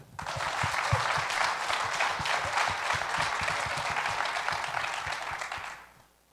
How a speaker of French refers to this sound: Applaudissons M. Pascal Côté.